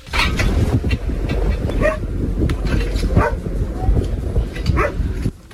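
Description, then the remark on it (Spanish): A search and rescue dog barks in repeated short bursts at the spot where a young woman is trapped in the ruins of a building, as firefighters in Huelva carry out the rescue, against a dense, rumbling outdoor background with voices talking faintly beneath the noise. “Quédate, quédate con el punto donde está ladrando. El punto exacto.”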